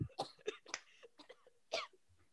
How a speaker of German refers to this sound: Können wir bitte einmal kurz alle husten? Eins, zwei, drei.